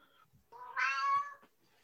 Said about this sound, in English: Meow.